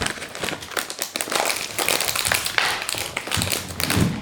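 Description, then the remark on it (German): Loud crinkling of a plastic bag of Fiesta Mexicana crunchy snacks being handled and pulled at as it is opened, a dense run of irregular crackles and rustles filling the whole stretch with no talking. “Ich mache mir die Tüte auf.”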